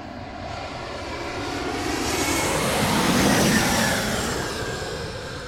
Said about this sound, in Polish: O, leci znowu, zaraz znowu będzie hałas. Odwróciłam głowę, bo mówiłam, że ja siedzę tyłem do samolotów i on już nadlatuje.